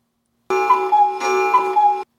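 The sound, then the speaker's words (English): A cuckoo clock sounds two loud two-note calls, each dropping from a higher pitch to a lower one, back to back with no pause and no voices. “You got to play your cuckoo. Yeah, cuckoo oh, sound.”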